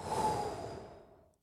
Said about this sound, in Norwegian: Så egentlig det du gjør, du, du hyperventilerer, altså kontrollert hyperventilering. Eh, og siste gangen du puster inn, altså dypt, og så slipper du ut pusten.